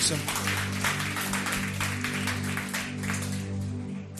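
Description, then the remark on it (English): An audience claps hands unto the Lord in a dense, continuous patter over a sustained, humming musical drone, loud, with no clear speech standing out. “Clap your hands unto the Lord.”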